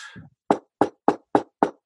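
knocking on wood

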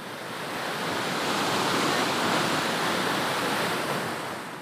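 waterfall rushing

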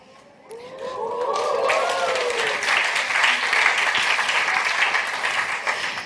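audience applause

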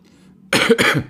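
coughing

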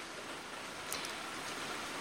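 heavy rain

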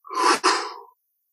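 forceful exhale

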